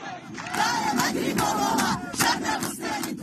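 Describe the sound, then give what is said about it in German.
A large crowd of protesters on their way to Sarkis chants "Death to the dictator" in unison, loud and rhythmic, their massed voices rising and falling in repeated shouted phrases. “Hier hören wir gerade Protestierende auf dem Weg nach Sarkis, wie sie Tod dem Diktator rufen.”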